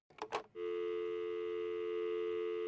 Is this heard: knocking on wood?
no